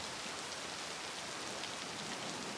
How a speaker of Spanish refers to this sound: En esta parte del Brasil, la lluvia es tan agresiva como puntual. Se nubla la tardecita y llueve a las seis.